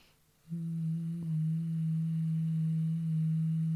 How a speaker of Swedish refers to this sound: Så det blir som ett hummande på utandetaget.